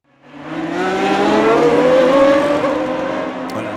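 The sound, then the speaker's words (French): A Formula 1 race car screams past, its high, harmonic engine whine rising in pitch and staying loud for several seconds before easing slightly. “ça fait beaucoup de bruit, vous l'avez reconnu. C'est de la F1, coup d'envoi ce week-end de la nouvelle saison à Bahreïn.”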